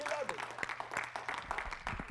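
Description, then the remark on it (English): A church audience applauds with a steady patter of many hands clapping at once, a hand clap of praise for Jesus, moderately loud and continuous, with voices mixed in beneath the claps. “If you're happy in Jesus, I want you to give him a hand clap of praise.”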